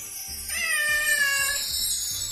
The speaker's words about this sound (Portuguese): Cadê o gato pra dar um belíssimo miau agora?